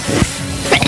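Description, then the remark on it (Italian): A single sharp sneeze breaks out near the end, a short breathy intake followed by a hissing burst. No one speaks. “Ragazzi, e poi mi ha preso un attacco allentico.”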